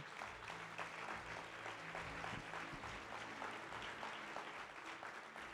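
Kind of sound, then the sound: crowd, audience applause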